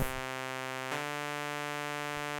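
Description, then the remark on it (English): A steady, buzzy tone from a 1985 Roland JX8P analog synthesizer, with two oscillators using the saw wave and pulse width, holds one pitch with a rich stack of harmonics, briefly shifting in timbre partway through, then sustaining evenly with no voice over it. “This time we have two oscillators with the saw wave, the pulse width,”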